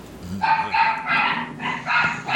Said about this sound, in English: Although talking con news, you're getting distracted by the dog barking, aren't you? I, I am.